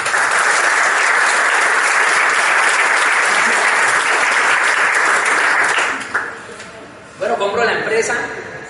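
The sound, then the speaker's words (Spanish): Loud, sustained audience applause, a dense wash of many hands clapping for about six seconds, then fading, with a brief burst of cheering or voices returning near the end. “Un aplauso para”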